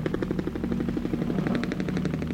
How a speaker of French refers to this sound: y a un hélicoptère qui est en train de tourner au-dessus de l'Amérique Rio.